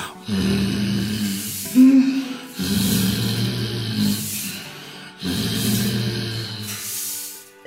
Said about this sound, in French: Il ronfle, il ronfle.